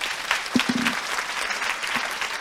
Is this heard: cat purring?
no